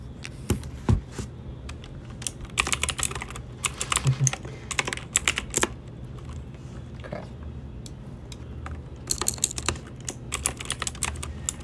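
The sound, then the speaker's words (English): Computer keyboard typing in irregular bursts of crisp clicks and clatter, pausing briefly between flurries, with a low background hum and no one talking. “Here's some ASMR keyboard.”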